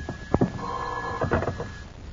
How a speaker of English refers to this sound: Finally, your nervous pacing is interrupted by the ringing of the telephone.